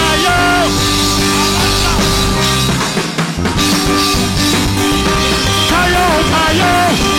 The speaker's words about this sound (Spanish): Pero el que sienta el poder de Dios, deme el mejor grito de alabanza. ¡Alaba! ¡Cayó! ¡Cayó!